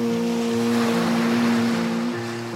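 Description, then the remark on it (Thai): A continuous, loud roar of rough sea waves and rushing wind fills the scene, with a steady low droning hum running beneath it and no voices. “คลื่นลมทะเลแปรปรวนฟองละอองคลื่นครวน”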